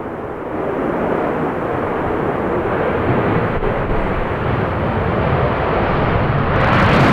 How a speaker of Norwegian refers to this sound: Det er F-35.